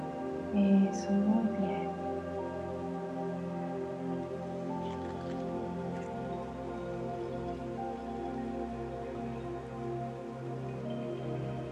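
Steady river water trickles and splashes over stones, a continuous babble of small drips and gurgles that holds an even level throughout.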